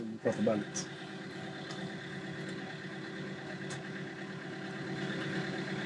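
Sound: vehicle engine idling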